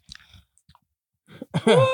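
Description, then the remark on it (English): Loud crunching and chewing of a sour Warheads hard candy in a few short bursts with brief pauses, followed by a strained voiced vocal sound at the end. “Are oh, you just are you chewing that? It's very loud.”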